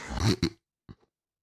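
A harsh, guttural hawking sound, someone loudly clearing phlegm from the throat in one rasping burst, followed by two short, quieter throat clicks, with no talking.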